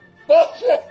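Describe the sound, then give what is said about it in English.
A single sneeze in two quick bursts, a sharp voiced catch followed by a shorter, breathier release, fairly loud against a quiet background with no talking. “Bless you.”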